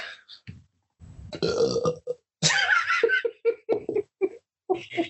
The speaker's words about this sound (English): I, um, I actually meant to say words, but I burped. I just it was it was one of those like you don't feel it till it happens type burps.